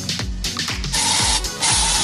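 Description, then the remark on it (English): An aerosol can of fly spray sprays in two steady, loud hissing bursts, each lasting about half a second, after a few short rhythmic thuds at the start. “There's your fly spray.”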